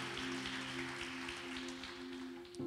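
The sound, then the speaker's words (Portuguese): An audience applauds with dense, steady clapping that fills the whole stretch, fairly soft overall, with a constant low hum running underneath and no one talking. “A segunda coisa que aplaudir, vamos lá.”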